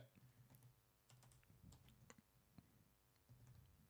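Quiet, irregular tapping of keys on a computer keyboard as a League of Legends player name is typed into a website, a scattering of soft clicks in short bursts over a low background hum, with no one speaking.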